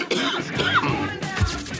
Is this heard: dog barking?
no